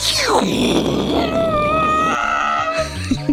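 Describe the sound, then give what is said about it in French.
A spaceship sound effect: a loud synthetic drone with a falling sweep at the start, then steady whining harmonic tones that warble and fade into low pulsing rumbles near the end. “Le vaisseau spatial.”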